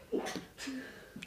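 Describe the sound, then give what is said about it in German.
A single sneeze: a short breathy intake, then a sharp hissing burst with a brief voiced tail, fairly quiet, with no talking around it. “Gesundheit.”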